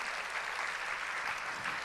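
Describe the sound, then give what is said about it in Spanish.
An audience applauding for the Lord, a dense, steady wash of many hands clapping at once with no pauses, holding an even, moderately loud level throughout and no voices standing out. “De veras, dale un aplauso al Señor si lo sientes.”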